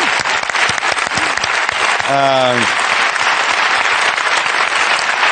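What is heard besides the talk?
audience applause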